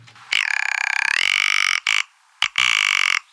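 A rock ptarmigan, a wild bird of the canton of Fribourg, gives a harsh, rattling croak, loud, in three bursts: a long grating call, a short snatch, then another long rattle, with nothing else in the background.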